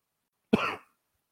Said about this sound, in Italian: Colpo di tosse anche. Due però. Tre.